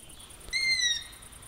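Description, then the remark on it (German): A single owl call, a thin, high-pitched drawn-out cry that slides slightly downward and lasts about half a second before fading, heard alone against a quiet, faintly hissing background. “Hören können sie die Eule immer wieder, aber sehen.”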